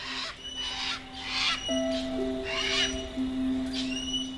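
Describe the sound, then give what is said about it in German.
Two parrots in a jungle squawk in several harsh, raspy bursts spaced irregularly over a few seconds, moderately loud, with a steady low tonal hum running underneath. “Ihr zwei beschließt, noch ein wenig weiter durch den Dschungel zu ziehen und verabschiedet euch deshalb von den beiden Papageien.”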